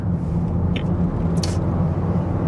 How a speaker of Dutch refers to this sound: Oh, ik ga mijn auto weer vies maken. Ik moet overal hier door de berm en door de smurrie rijden. Sta ik straks weer bij dat wasbok dat ding af te spuiten.